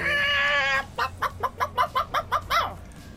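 A chicken lets out a drawn, wavering squawk, then a quick run of about eight sharp, evenly spaced clucks, loud, with no one talking.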